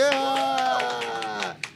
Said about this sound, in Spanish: así que Vamos a recibir con gusto y placer desbordador, aplauso fuerte que se escucha aquí en la producción